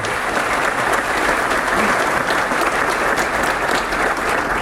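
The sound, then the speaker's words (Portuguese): Sustained applause from an audience for state deputies of the São Paulo legislative assembly, a dense, steady wash of many hands clapping at an even loudness for several seconds, with no voices standing out above it. “Então, uma salva de palmas aos nossos deputados, pessoal.”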